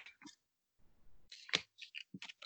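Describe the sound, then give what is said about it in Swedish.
Crisp bursts of paper wrapping being cut and unwrapped, reaching a second layer of paper, with sharp snips and crinkling rustles coming in quick irregular clusters around a short quiet stretch. “Men här, när vi kommer till lager två av papper, då, det här händer det ja.”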